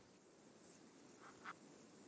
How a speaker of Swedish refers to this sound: Först får vi höra um, syrsor.